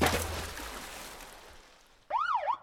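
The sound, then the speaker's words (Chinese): A police siren from not far away wails in loudly near the end as police give chase, its pitch sweeping down and up in a single cycle. It follows a fading wash of broad, hissy noise, with no voices. “不远处传来了警笛声， 糟糕！猴子警长追过来了。”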